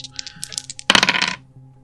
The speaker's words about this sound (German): Dann würfel mal drauf.